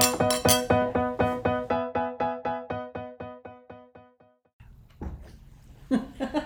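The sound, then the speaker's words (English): Bright, ringing glass clinks from a toast tap out in a quick, steady run of about eighteen strikes, gradually fading, before a short stretch of muffled chatter and room noise takes over. “Cheers. Cheers.”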